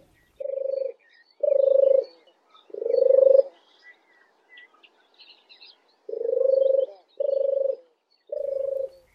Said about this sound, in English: the song of the turtle dove is like a cat purring in a tree. I often tell my students that if you hear a cat purring in a tree, then it's a turtle dove.